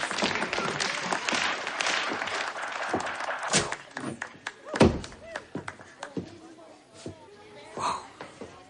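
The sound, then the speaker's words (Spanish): In a rehearsal room, a crowd claps steadily for several seconds after a dancer finishes her dance, a dense patter of hand claps with one louder thump partway through, while voices murmur beneath the applause. “Todos la miran y aplauden.”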